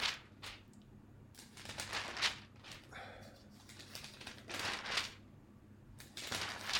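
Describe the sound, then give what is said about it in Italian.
Newspaper pages are leafed through while searching for a particular page, with a run of quick, crisp rustles and flips spaced irregularly over several seconds and no one talking. “Ehm, non è pagina 3, adesso voi mi darete il tempo di trovarla.”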